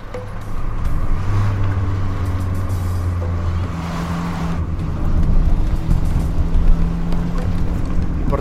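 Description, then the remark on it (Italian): A car engine hums steadily, its low drone dipping as the gear changes, then rising again as the vehicle pulls away and accelerates. No one speaks. “Ingrana la marcia e riparte senza pronunciare una parola.”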